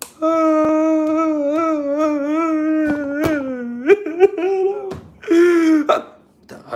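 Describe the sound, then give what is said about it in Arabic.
A child wails in a long, wavering cry, then breaks into hiccuping sobs and gasps before letting out another short, loud wail. Close and loud throughout. “فجأة تحول مزاج هذا الطفل إلى إلى مزاج البكاء”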